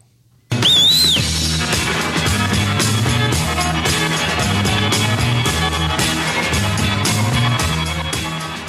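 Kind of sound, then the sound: electric guitar solo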